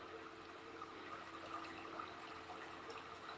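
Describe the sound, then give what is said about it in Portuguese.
A soft, steady trickle of running water, with a faint bubbling, splashing texture that continues evenly throughout, with no voices. “Ouço o barulhinho da água.”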